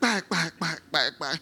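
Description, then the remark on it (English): A voice imitates a shaken baby rattle with five quick, evenly spaced syllables, loud, followed by a brief laugh. “And take that one, uh, maybe a rattle, and begin to hit it. And it's the sound of the rattle that”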